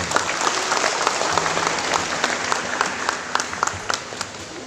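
Steady audience applause for the head of IPSI Ketapang Regency at a pencak silat championship event in Ketapang, Indonesia, many hands clapping at once in a dense, continuous patter with scattered sharper claps standing out, holding at an even moderate level for several seconds.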